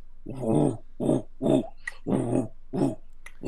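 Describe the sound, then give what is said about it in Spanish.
A furro, a deep friction drum set on the floor and played by pulling down a waxed stick with both hands, like a Brazilian cuica but about five times larger, gives five low, growling, grunt-like strokes in an uneven rhythm, each a rough rubbing moan lasting under half a second. “Es como la cuica, exacto, pero con, un sonido muy, muy grave.”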